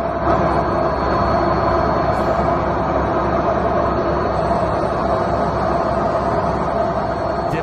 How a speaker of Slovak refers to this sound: Včera som totižto odmeral svoju pokazenú práčku a nahral som vám aj zvuk, aby ste verili, aj tí, ktorí nebývate tesne vedľa mňa, teda v okolí 5 kilometrov, teda ste to nepočuli, tak vám pustím, ako znie moja práčka.